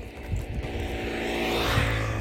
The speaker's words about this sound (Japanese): すいません今ね朝散歩してる朝散歩しながらちょっと行ってるのでバイクの音入っちゃって申し訳ございません